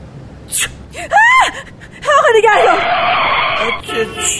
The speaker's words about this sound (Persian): چی شد خانم حالتون خوبه بله خوبم چه جیغ زدین خانم